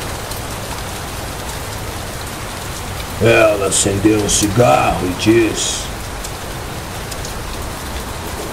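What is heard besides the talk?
rain falling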